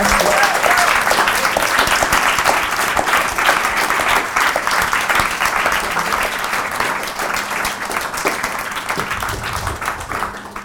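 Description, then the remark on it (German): Sustained applause from a live audience at a Bier ab 4 event at the Toni-Areal in Zürich, dense and steady for about ten seconds, with many hands clapping at once and a faint murmur of voices beneath. “Ein Applaus für euch.”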